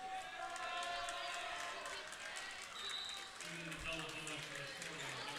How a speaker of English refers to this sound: So Cole comes out to a round of applause.